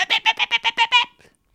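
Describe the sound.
A voice imitates an ejaculation squirt, meant as sperm spraying onto the people on a bus, with seven quick, squeaky, rhythmic bursts in a fast even pulse, fairly loud, then a faint trailing sputter.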